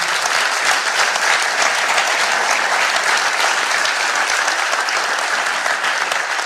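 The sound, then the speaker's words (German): An audience at a church service applauds for those who have just decided to live with God, a dense wash of many hands clapping at an even, sustained level throughout, with no voices standing out above it. “Ihr Lieben, lasst uns mal einen großen Applaus geben, weil ich glaube, für die,”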